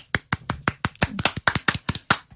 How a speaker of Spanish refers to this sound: es una canción que para mí tiene tantos ingredientes y está tan bien hecha de arriba abajo que me parece que se merece este aplauso.